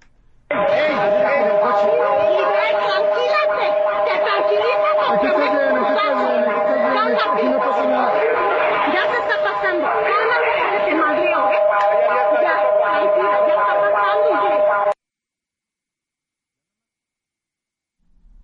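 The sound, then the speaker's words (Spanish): A loud earthquake warning alarm in Mexico blares continuously for about fifteen seconds, a steady droning tone with voices chattering beneath it as a mother tries to calm her children, then cuts off abruptly into silence. “Yo nada más escuché la alarma, Feloe.”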